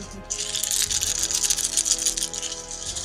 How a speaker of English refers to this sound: my, that is a very interesting mixture of very high and very low. I only rolled fives, sixes, and ones. so all of those die. And in eight dice, it's only fives, sixes, and ones.